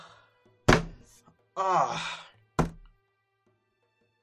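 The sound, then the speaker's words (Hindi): Two sharp belt lashes strike about two seconds apart, each a loud, abrupt slap that stops quickly. Between them, a voice lets out a drawn-out, pained moan. “अचानक उन्होंने एक बेल्ट उठाई और मुझे मारने लगी”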